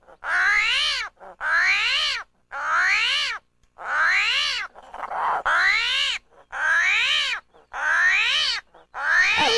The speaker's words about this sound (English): That's actually a kind of armadillo called a screaming hairy armadillo. I wonder how it got its name.